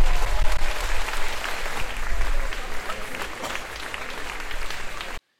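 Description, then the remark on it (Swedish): Sustained applause from a large outdoor crowd of about 5,700 people at Almedalen on Gotland, Sweden, welcoming Prime Minister Magdalena Andersson's speech; dense clapping rising and falling steadily for several seconds with faint cheers mixed in, then cutting off abruptly. “Jag stod mitt i folkhavet och jag har nog aldrig sett en så stor publik vid ett Almedalstal.”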